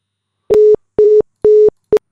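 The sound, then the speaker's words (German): A telephone line tone beeps in short, evenly spaced pulses, four quick steady beeps with brief gaps, clear and fairly loud with no voices, as a second attempt to call a woman goes unanswered. “Ähm, muss mal gerade gucken, vielleicht kriegen wir sie auch nochmal ans Telefon. Vielleicht geht sie dran, vielleicht auch nicht.”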